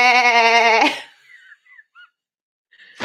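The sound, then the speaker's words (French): A human voice imitates a goat as a vocal exercise to wake the larynx resonator, holding a loud, wavering nasal "bé" for about a second, followed by a few faint chirpy sounds and a short breathy burst at the end. “Et on va le réveiller en, faisant la chèvre. On va faire bé”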